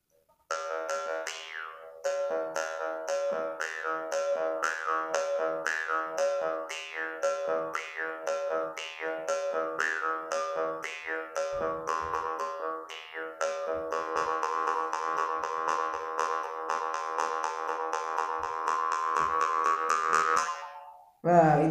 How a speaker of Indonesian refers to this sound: sebetulnya saya hanya membawa karinding dan toleat ini yang saya gunakan adalah karinding kayak karinding iya. karinding ya. keren sih karinding ini dari bambu